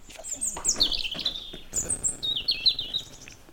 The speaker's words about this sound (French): Bon, mais il y a le rouge-gorge qui nous mm. accompagne,